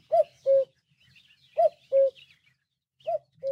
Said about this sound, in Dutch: De mooie vogelgeluiden die je notenkraakers hoort, die komen van de app Bird Sounds Europe. Hek Meuse, die ook voor ons vogelmagazine schrijft over vogelgeluiden, heeft veel van die geluiden voor de app opgenomen.